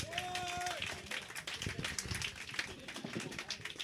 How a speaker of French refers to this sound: Et pour nous en parler, on applaudit, s'il vous plaît